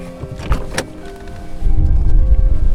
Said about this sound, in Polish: No właśnie, tak jest na zewnątrz, więc, więc musimy zostać wewnątrz samochodu, gdzie jest szansa, że ten wiatr jednak nas nie dosięgnie, a chłód nie wychłodzi.